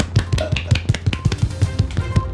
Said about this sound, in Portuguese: Uma salvinha de palmas.